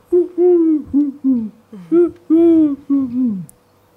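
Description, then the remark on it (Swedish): A human voice imitates the cooing of a Eurasian collared dove, giving a rhythmic series of low, hollow hoots in close succession, each rising and falling, fairly loud with no other talk. “Alltså, turkduvor, vad säger de egentligen?”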